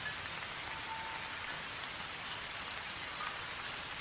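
Steady rain pours down in a dense, even hiss at a small, peaceful temple in Japan, with fine pattering drops spread across the whole clip and no voices or other sounds.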